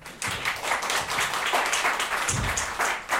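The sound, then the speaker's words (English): An audience applauds the speakers at a talk about elections in Kenya, a dense wash of many hands clapping at once, fairly loud and sustained for a few seconds with no talking. “Give a clap for all of them.”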